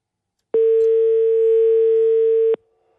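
One steady, mid-pitched telephone ringback tone sounds for about two seconds, starting and stopping abruptly, then quiet follows. A loud, even electronic hum with no voices.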